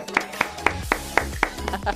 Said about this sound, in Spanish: ¡Bravo! Él se aplaude solo. ¡Bravo!